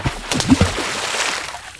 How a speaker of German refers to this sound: Ich griff nach Papas Hand und wir rannten über den Felsen und sprangen genau vor Mama und Upsi ins Wasser. Arschbombenwettbewerb!